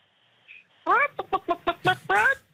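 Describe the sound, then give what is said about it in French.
A person loudly imitates a rooster's crow: a drawn-out opening note, a run of quick choppy syllables, then a long strained final cry. “Est-ce que vous pensez que si je fais le bruit du coq”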